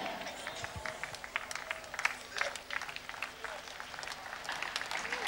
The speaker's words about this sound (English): I can hear your amen. The amen.